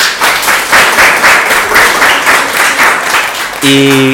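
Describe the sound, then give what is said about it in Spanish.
A sixth-grade school class applauds, a dense, steady patter of many hands clapping loudly for about three and a half seconds, ending as a bright sustained tone with harmonics cuts in. “Un aplauso para la gente de sexto.”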